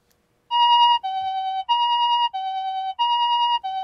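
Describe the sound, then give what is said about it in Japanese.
A classic Japanese two-tone ambulance siren, the type in use since 1970, alternates steadily between a higher and a lower pitch, about twice per second, loud, with no voices over it. “じゃあそのまずじゃあ1970年ねあの、はい、パトカーと救急車のとは別個になりました、はい、で我々がずっと聞いてきた今の今今のずっと聞いてきた救急車の音、はいねはい、ちょっとあのちなみに車運転してる人、はい、これはあの近所で鳴ってるんじゃないはい、あのくれぐれもお気をつけくださいね”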